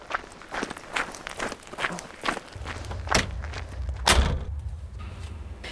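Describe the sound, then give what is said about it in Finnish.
Footsteps approach, then the door to a gym where a sport and exercise psychology expert trains opens with a couple of thuds, and a low, steady rumble swells in. “Nyt avataan ovi salille, missä treenaa urheilu- ja liikuntapsykologian asiantuntija”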